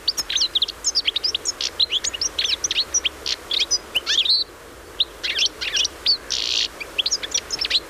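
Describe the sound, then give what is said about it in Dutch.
A European goldfinch sings a fast, twittering song of bright, liquid chirps and buzzy trills, nearly continuous with brief pauses, clear over a faint background hiss. “Ja, dit is de zang van het puttertje.”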